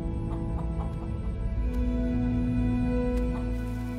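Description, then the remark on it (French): Chickens clucking, with scattered short clucks and calls over a steady, humming background, moderately loud, with no talking. “Les hommes sont par exemple trois fois moins nombreux que les poules.”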